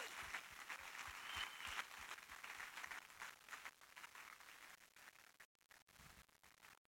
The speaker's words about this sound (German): Also lasst uns stellvertretend den beiden für all diese Menschen Applaus geben.